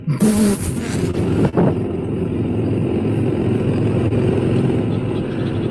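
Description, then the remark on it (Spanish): An engine is revved by pushing the throttle control to accelerate, then held at a raised speed: a dense, steady low rumble after a brief louder, harsher burst at the start, with no voices. “Tenés que empujar para acelerar.”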